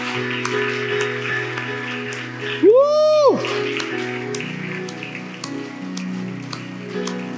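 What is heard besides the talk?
audience applause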